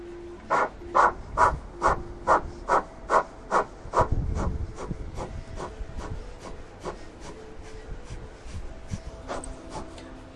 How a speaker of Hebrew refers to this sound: בואו נשים את הידיים על המותניים וניקח דקה שלמה של נשימת אש.